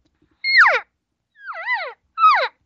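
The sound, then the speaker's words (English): A hunter imitates a cow elk on a call: three short, nasal mews, each a whiny, harmonic note sliding downward in pitch, with brief pauses between them and no talking. “Remember, this cow made gave a few cow sounds. A couple minutes later, she does it again.”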